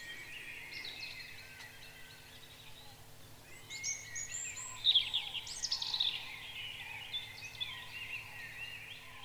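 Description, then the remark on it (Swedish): A small songbird perched in a spruce sings a thin, very high-pitched rippling trill, faint, swelling to a brighter burst midway over a steady low background hum. “Jag sitter ofta uppe i en gran och sjunger det här med de här höga, höga tonerna och det här porlande”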